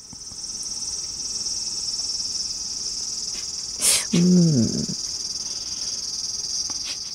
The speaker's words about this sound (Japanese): 大体ね、60デシベルぐらいになるっていうから相当な騒音ですよ。これ朝からずっと聞かされた日には関西人はどうなるのって話ですけど。ちょっとなんか頭痛を誘いそうなこのね。そうなんです。だから関東の皆さん、うん、あの、夏関東で油ゼミの声が聞けるというのは、実は幸せなことなんだと。